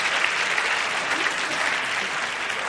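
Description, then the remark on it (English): Steady audience applause at a debate fills the whole stretch, given for a speaker and all the debaters. Many hands clap at once in a dense, even wash of sound with no pauses, moderately loud throughout. “But I want to re- invite one more round of applause for you and for all of our debaters.”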